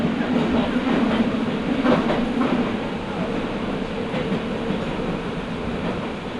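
A Nagoya Municipal Subway Higashiyama Line train in Nagoya, Japan, running from Takabata toward Fujigaoka and approaching Nagoya Station, rumbles along the rails with a steady low roar, a faint squealing hum in the first few seconds and soft rhythmic clacks beneath the continuous noise.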